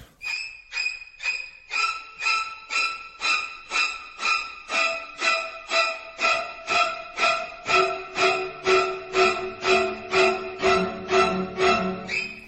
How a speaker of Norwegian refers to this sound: Dette er skrekkfilmmusikk på boks. Eh, hvis du trenger skrekkfilmmusikk, da setter du på den musikken igjen.